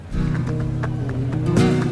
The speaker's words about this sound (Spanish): Ahora galopa el novillo hacia las tablas y lo va a parar este novillero, eh, perdón, Iván Rejas, el cuarto de la tarde.